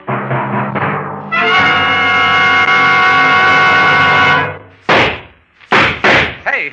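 Pistol shots fired at a car ring out: four sharp, loud bangs in quick succession, following a long, steady blaring horn-like tone that cuts off abruptly.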